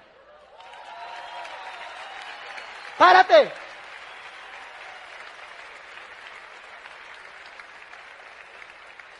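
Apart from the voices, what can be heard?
audience applause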